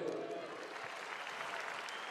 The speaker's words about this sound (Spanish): Espectacular Perú. Un gran aplauso para Perú.